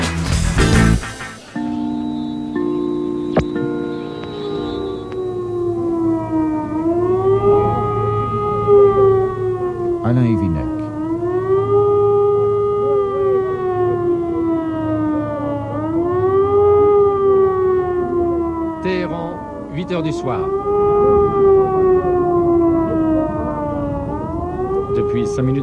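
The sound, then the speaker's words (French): Civil defense air raid sirens sound the red alert over a city during the 1980–1988 war, wailing and rising and falling in long slow cycles, loud and sustained throughout, with a steady low hum beneath. “Déjà, les sirènes retentissent sur la ville, c'est ce que l'on appelle ici l'alerte rouge.”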